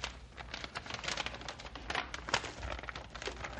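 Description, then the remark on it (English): A sealed paper packet of secret orders, taped shut, is torn open, a steady run of crisp crinkling and ripping with sharp crackles scattered throughout and no voices. “Ah, tough paper and tape.”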